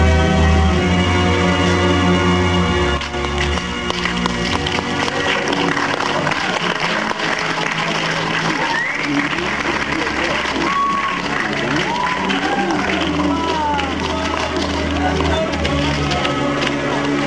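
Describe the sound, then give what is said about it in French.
An audience claps and cheers after a show at the planetarium of the Cité des Sciences et de l'Industrie, a steady, dense wash of sound that fills the whole stretch, with a murmur of many voices mixed into the applause. “D'ailleurs, vous pouvez entendre derrière moi l'enthousiasme du public”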